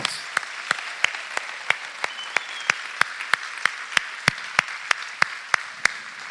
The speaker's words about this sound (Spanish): Demos un fuerte aplauso. Vamos.